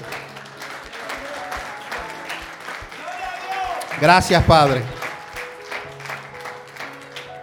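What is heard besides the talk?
audience applauding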